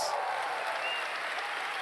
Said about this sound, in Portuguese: Como não mencionar esse pessoal que nós amamos, que é o pessoal do som, da mídia, vamos dar um aplauso para eles.